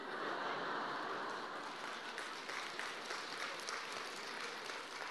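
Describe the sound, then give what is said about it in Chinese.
Light, scattered applause, a modest patter of hand claps that runs steadily throughout with no voices over it, thin rather than a full ovation. “鼓掌的人不多，不讲了。”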